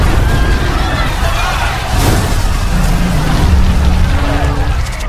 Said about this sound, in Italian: Se vi foste appena collegati abbiamo notizie inquietanti da Washington La situazione è in pieno sviluppo, c'è appena stata un'esplosione... È estremamente scioccante.